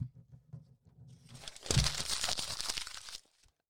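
Loud crinkling and ripping of paper, a dense crackling burst lasting nearly two seconds before stopping abruptly, preceded by a quiet low murmur.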